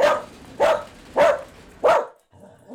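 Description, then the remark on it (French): A female dog barks four times in a steady rhythm, each bark sharp and fairly loud, with brief quiet gaps between them and a faint lower sound trailing at the end. “Elle leur aboie dessus.”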